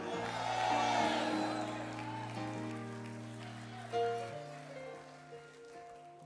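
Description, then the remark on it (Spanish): An audience erupts in cheering and shouting over sustained organ chords, the crowd noise loudest in the first two seconds before fading as the held keyboard tones carry on. “Tienes un grito de victoria, aleluya.”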